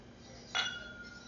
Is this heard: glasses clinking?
yes